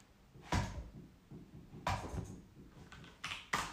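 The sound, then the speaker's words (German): Sharp knocks against a wooden surface, like a woodpecker tapping on a house, four irregularly spaced raps with quiet gaps between them. No one speaks. “Irgendwie ein Specht oder so klopft hier an dem Haus rum.”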